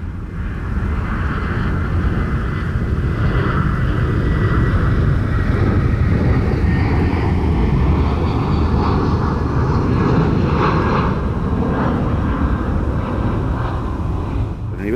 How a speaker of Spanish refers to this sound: Por, por un lado, el ruido de los aviones, o sea, la tercera pista va de laguna a laguna y el impacto sonoro es exagerado justo encima de estas lagunas.